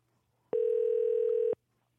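telephone call connecting

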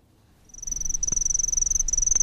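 cricket chirping

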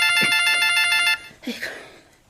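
telephone ringing

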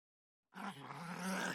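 dog growling

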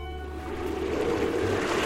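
ocean waves and wind

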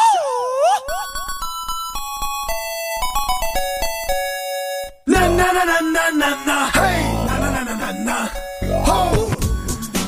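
ding-dong-dang chime

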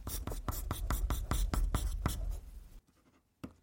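writing letters by hand

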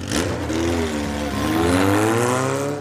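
motorcycle engine revving

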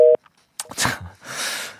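phone call disconnected

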